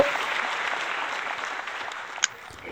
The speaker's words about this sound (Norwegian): Applaus til Betongbarna.